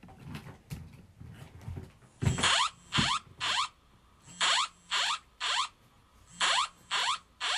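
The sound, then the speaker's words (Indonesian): A Japanese earthquake early warning phone alert blares a loud, harsh, warbling tone in rapid repeated bursts, about nine in a steady rhythm, after a couple of seconds of faint clicks and handling noise. “Biasanya tuh di antara bunyi ngik, ngik, ngik, terus ada bunyi jising des gitu ya”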